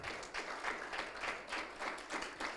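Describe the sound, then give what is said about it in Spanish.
An audience at a bilingual Spanish-English sermon breaks into sustained applause for the Lord, many hands clapping together in a dense, steady patter with slight swells, no voices standing out above it. “Dele el aplauso que no es para mí, es para el Señor.”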